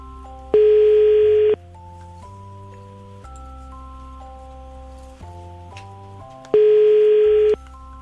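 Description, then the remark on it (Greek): A phone's ringback tone during a radio show's call to a listener sounds twice, each steady one-second buzz separated by a long pause, with no answer, over soft background music. “δεν ακούω να το σηκώνει η Ειρήνη. Ή κοιμάται λίγο πιο βαριά ή είναι σε δουλειά.”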